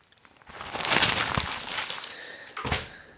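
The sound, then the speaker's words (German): Paper rustles and crinkles in a steady, scratchy flurry for a few seconds, with a louder swell near the start and a sharp crisp burst toward the end; no one speaks. “Äh, würde ich ganz zum Ressort Lifestyle weitergehen, wenn das okay ist für dich und würde dann, dann zum letzten Mal heute rascheln.”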